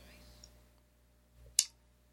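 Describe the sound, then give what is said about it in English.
A die is rolled and lands on a four, heard as one sharp, bright click near the end of an otherwise quiet moment with a low background hum. “All right, let me roll the dice.”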